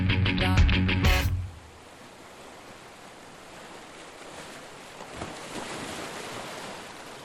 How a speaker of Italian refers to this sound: mare grosso, vento favorevole.